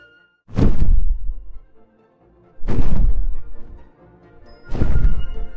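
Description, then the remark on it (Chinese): A moose calls three times, each a loud, deep, rough bellow lasting about a second, separated by short pauses. The calls have a growling, roar-like quality with no voices present. “它听起来像一头狮子，或者是老虎。仔细一看，好像都不是，好像是一头鹿在森林里慢悠悠的散步呢。”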